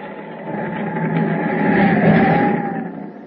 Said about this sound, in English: Outside, the wind howls past the open porthole the ship plows through a heavy sea to its doom.